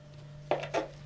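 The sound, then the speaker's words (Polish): Two quick knife chops on a cutting board, cutting an onion into thick strips in a steady rhythm, moderately quiet over a low background hum, with no talking. “Pokroję sobie w trochę większą kostkę, a właściwie kroję cebulę nie w w kostkę, tylko w troszeczkę grubsze paski.”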